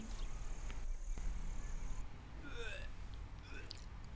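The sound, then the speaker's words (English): A person retches and heaves over a porcelain toilet bowl in Kathmandu, after brushing their teeth with tap water, with a couple of strained, gurgling gagging sounds over a low, muffled rumble, fairly quiet. “This is absolutely the sound of you clinging to a porcelain bowl in Kathmandu after avoiding very clear warning signs not to brush your teeth with tap water.”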